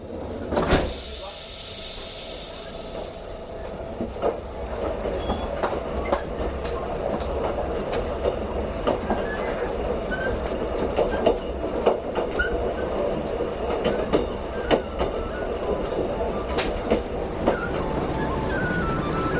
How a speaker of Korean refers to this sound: 기차는 금세 도시를 벗어나 들판을 달리기 시작했다.